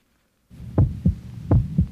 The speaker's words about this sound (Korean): 심장은 미친 듯이 두근거렸고 다리는 후들거렸지만 고개를 숙이고 그녀가 앉아 있는 자리 앞에 가서 섰습니다.